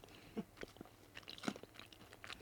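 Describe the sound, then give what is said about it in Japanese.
Crunchy chewing of macadamia nuts, with irregular crisp crunches repeating over a couple of seconds, fairly quiet and with no talking. “結構するんじゃないですかマカダミアってさ高いじゃんこれ音うんたまんない”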